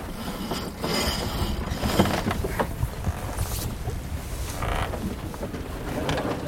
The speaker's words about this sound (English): That wind's up again. Is it? Yeah.